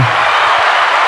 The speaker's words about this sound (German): Was ist das? Das ist okay. Applaus. Aber den solltest du ja eigentlich noch so ein bisschen im Gehör haben. Das klingt so wie im Sommer im Freibad.